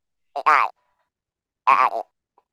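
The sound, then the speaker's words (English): A voice imitates a duck trying to say "I love you": two short, nasal quacking bursts separated by a pause, fairly loud, like quacked-out words with no clear speech. “I was trying to say I love you in a duck voice.”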